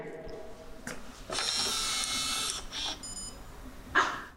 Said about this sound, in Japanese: 閉まっていますになりました。はい。そして今何か動きました。はい。ということで、このスマホでボタンを押すと、鍵が自動的に閉まるっていう、これがスマートロックになってます。